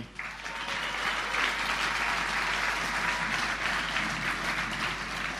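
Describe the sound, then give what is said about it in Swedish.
A crowd applauds steadily for several seconds to welcome two guests, a dense, even wash of many hands clapping, with no speech over it. “En applåd tycker jag de kan få.”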